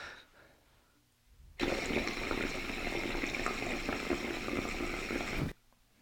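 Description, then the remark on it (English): Bubbling water sound from an older water pipe percolator, starting abruptly, a dense, airy churn with a choppy texture, steady for about four seconds before cutting off sharply. “You can hear them; they're a little airy and they have a little bit harder of a chop.”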